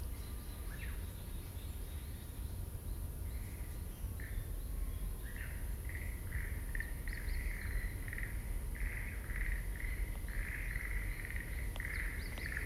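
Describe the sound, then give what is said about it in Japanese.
A bird hidden in vegetation during a countryside satoyama walk calls in a steady series of short, repeated chirps, fairly clear over a constant low outdoor rumble, with no one speaking. “誰か泣いてるさ音が聞こえるんだけど鳥かな中にいるのかな”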